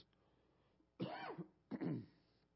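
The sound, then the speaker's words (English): Two rough bursts of coughing and throat clearing, the first lasting about half a second and the second a little shorter, with quiet background between them and no talking. “I hadn't coughed a single time all day till I came up here.”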